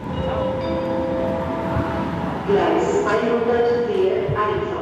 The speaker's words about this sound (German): Dicht an dicht wuseln heute Morgen Menschen durch den Frankfurter Hauptbahnhof.